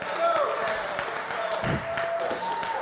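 A crowd cheers and claps steadily at a loud, even level, with dense rattling applause mixed with shouts and a few high whoops rising above the din throughout.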